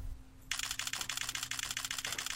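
A camera shutter fires in a rapid continuous burst of about 50 photos, a quick string of sharp mechanical clicks repeating evenly for about two seconds, over a faint steady background hum.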